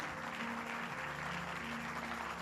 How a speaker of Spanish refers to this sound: Póngase de pie. Denle un aplauso al Eterno, al que lo merece.